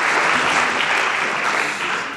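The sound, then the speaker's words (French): Sustained audience applause at a scientific award ceremony honouring the absent immunologist M. Ginoux, a dense steady wash of many hands clapping at once, loud and unbroken for about two seconds before easing slightly at the end. “On va l'applaudir en absence, peut-être il va regarder ça.”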